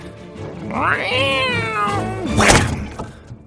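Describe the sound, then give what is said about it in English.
A cat lets out one long, rising and falling yowl that swells loudly as it pounces, then a sharp thump-like burst lands near the end as it slams into a tree. No one speaks. “Just as they reached their burrow, the cat pounced.”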